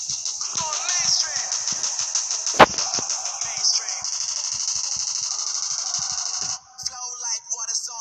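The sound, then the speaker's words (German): Rapid gadget shots in a video game on a Knockout map crackle in a steady stream over a bright, busy electronic backdrop, with one sharp, loud blast standing out partway through; an opponent runs into four of the shots. “ist einfach in vier meiner Gadget-Schüsse reingelaufen gerade.”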